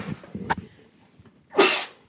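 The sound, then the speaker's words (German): A single sharp sneeze bursts out, preceded by a brief intake of breath and a few soft rustles, then fades quickly into quiet. “Ich musste kurz niesen.”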